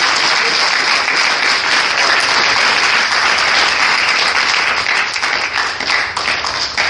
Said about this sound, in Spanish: Vamos a aplaudir a